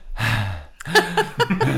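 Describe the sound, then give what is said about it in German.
A person draws one deep, noisy breath in, then lets it out in several short, voiced, breathy pushes, fairly loud, as if demonstrating deep breathing. “Du atmest dreimal tief durch. Ich will das Atmen hören.”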